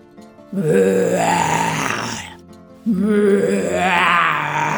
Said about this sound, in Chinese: 一只真正的大熊从森林里跑出来，一边发出了裘裘听过最恐怖的吼叫声。